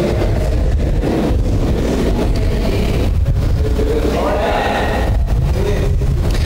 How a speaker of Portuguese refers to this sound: Se puder abaixar só um pouquinho esse ventilador aqui, filho, ele tá, tá batendo o microfone aqui. Só um pouquinho, tá bom? Senão eu vou cozinhar aqui.